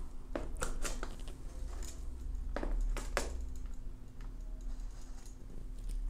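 An adjustable metal cake ring being opened and widened while preparing a dessert, with a few sharp metallic clicks in two short bursts over a steady low hum and no talking.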